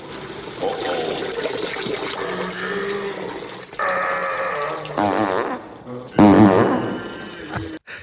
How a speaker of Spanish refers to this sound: salvando la flatulencia y la meada increíblemente larga